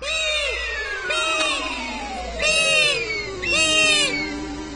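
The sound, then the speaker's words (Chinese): Four shrill, wailing harpy eagle calls, each rising and falling in pitch, repeated with short gaps over a steady background drone, with the last two calls the loudest. No voices. “啊哦，那好像是角雕的声音，它们一定是醒了。”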